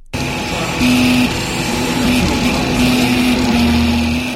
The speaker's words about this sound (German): Mikrometergenau schichtet das kaffeemaschinengroße Gerät Lage um Lage dunkelblauen Kunststoff übereinander. Und obwohl das Werkstück erst halb fertig ist, zeichnet sich bereits seine finale Form ab. Das Logo der Weltraumsaga Star Wars.